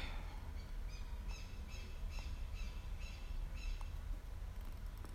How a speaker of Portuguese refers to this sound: Por que tem esse pássaro aqui no fundo aí gritando? Eu nem sei que pássaro é.